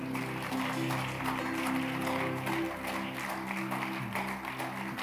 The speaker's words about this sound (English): Give the Lord a good clap friend.